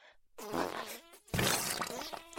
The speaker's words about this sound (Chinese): 这又放屁又拉屎的，人家好害羞啊！